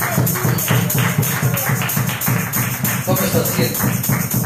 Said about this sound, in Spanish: A su nombre. A su nombre. Palmas a Jesucristo.